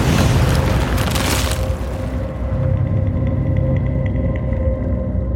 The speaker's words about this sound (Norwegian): Og da klokka ble fem, så begynte bakken å riste. Og det flere beskrev som et tordnende brak, kom fra Ramnefjellet.